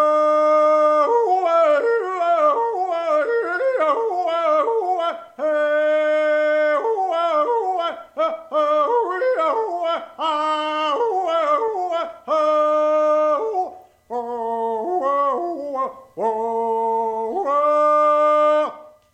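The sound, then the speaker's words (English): A lone voice hollers a long, wordless field call, loud, with sustained wavering tones that slide up and down and pause only for brief breaths, unaccompanied. “Now, this is the first song I'm holler.”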